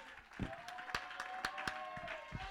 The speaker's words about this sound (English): Oh, let's clap our hands.